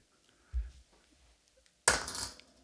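A coin drops into a money box: a soft low thud, then one sharp metallic clink that rattles and rings briefly before fading. No one speaks.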